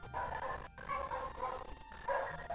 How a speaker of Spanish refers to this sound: Ah. Ya sé que eran esos ruidos. Malditos perros. Pero ni modo, se aguantan. Yo estoy aguantando esos perros.